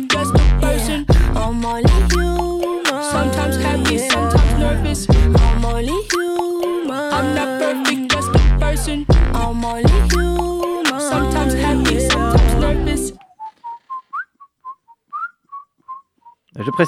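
A busy music track plays loudly, then cuts away to a lone whistled melody: a string of short, clear, high notes in a bouncy rhythm before the music returns.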